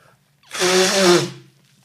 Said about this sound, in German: Muss man immer eine Nase putzen.